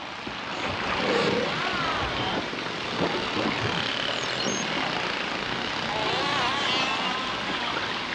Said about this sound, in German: Buckelwale zum Beispiel spucken richtig große Töne. Die Meeressäuger sind wahre Meistersänger der Ozeane.